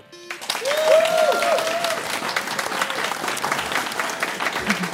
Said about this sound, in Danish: tak alligevel for at være her og give lige jer selv en hånd.